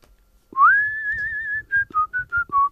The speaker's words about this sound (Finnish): Osaatko viheltää?